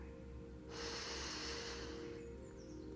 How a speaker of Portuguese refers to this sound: Fique atento à sua respiração. Inspire pelo nariz